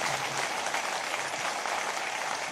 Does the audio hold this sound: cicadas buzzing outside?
no